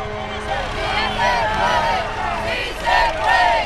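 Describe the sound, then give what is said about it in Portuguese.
A crowd riding on four people-packed trucks heading to the Francisco Santander International Bridge at the Venezuelan border cheers and shouts continuously, many overlapping voices rising in loud bursts of excitement, with a steady low engine rumble underneath. “A festa a caminho da Ponte Santander, quatro caminhões pintados de gente muita gente à boleia.”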